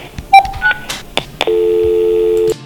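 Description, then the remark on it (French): A few quick electronic beeps, then one telephone keypad tone held steadily for about a second, clear, with no talking, as the 2 key is pressed for French service on the En Tandem licensing phone line. “Pour le service en français, appuyez sur le 2.”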